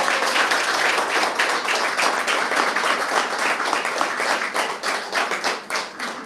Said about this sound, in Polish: W sumie to były takie brawa jak na koniec, to może możemy już Dokładnie. pójść.